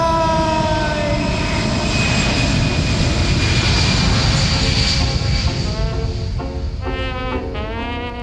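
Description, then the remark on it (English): A loud, steady airplane engine roar with high whining tones that slowly shift in pitch, easing slightly toward the end as the plane departs. No one speaks. “But I've got to catch my plane.”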